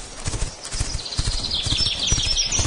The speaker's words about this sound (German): Am ersten Morgen reiten Bella und Melly mit ihren Pferden Schoko und Brownie aus.